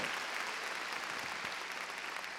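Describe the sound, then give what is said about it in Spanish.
A large audience at a church service claps loudly and steadily for the Lord, a dense wash of many hands applauding together for the whole stretch, with no voices standing out. “A ver, démosle palmas fuertes al Señor.”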